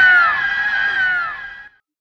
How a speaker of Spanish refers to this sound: Mientras recupero el aliento, un tercer alarido me hace voltear para ver el cuerpo destazado de Hikari.